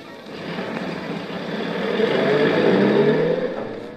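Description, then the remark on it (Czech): A car engine revs up and accelerates, rising in pitch and loudness to a peak near the end before easing slightly; steady, with no voices. “Čekáme auto s kokainem. Jedem.”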